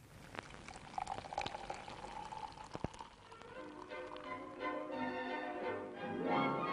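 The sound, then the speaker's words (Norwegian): Beer is poured into a glass, a few sharp clicks giving way to a steady glugging stream whose pitch rises as the glass fills. No one speaks. “Øl hører til.”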